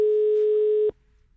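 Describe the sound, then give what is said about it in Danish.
A telephone ringback tone heard while the hosts of the radio show 24/7 call a guest: one steady, mid-pitched electronic beep held for just under a second, then cut off into near silence, with no voices. “Men vi skal være, vi skal være hurtige med ham, hvis han tager den.”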